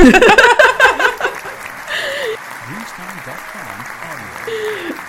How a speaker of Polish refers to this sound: Tutaj też wrzucę fanfary.